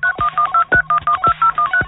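A rapid run of telephone keypad DTMF tones, about ten short beeps in steady rhythm, each a clear dual-pitched tone with brief gaps between, loud and close with no voices.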